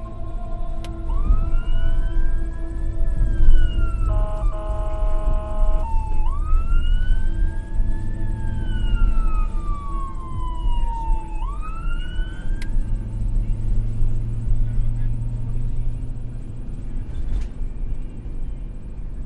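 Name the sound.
ambulance siren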